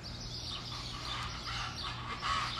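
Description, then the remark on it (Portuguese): A steady chorus of birds chirping and tweeting outdoors at 6 a.m. in Bonito, Mato Grosso do Sul, Brazil, many overlapping high calls blending into a continuous wash over a low, constant hum, with no one talking. “E aqui é cheio de pássaro, cheio de Aqui é tipo meio vida silvestre, tá?”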